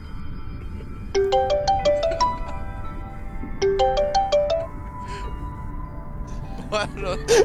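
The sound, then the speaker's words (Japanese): A phone's electronic call tone, heard after a call is suddenly cut off, plays a short rising melody of beeps, repeats it once, then starts again near the end, all over a steady murmur of low background noise. “もう怖い怖いいきなり切れるの怖いからなんで電話切れたんですかわかんない”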